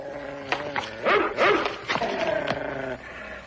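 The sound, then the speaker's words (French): A dog growls and barks up close in a scene from the TV series Black Sheep Squadron (Les Têtes Brûlées), a steady rumbling snarl broken by several sharp, loud barks in quick succession over a few seconds. “Débarrassez-vous de ce chien.”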